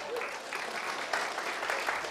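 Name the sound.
studio audience applauding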